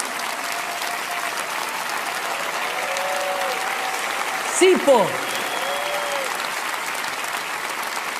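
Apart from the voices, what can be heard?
audience applause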